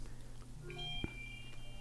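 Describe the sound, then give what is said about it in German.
A soft electronic locator alert from a phone, set off by a smartwatch's find-phone function, sounds as a short run of thin, high beeping tones, fairly faint, with no one speaking. “Du kannst sagen, Telefon suchen und, und dann macht es so also ein Geräusch.”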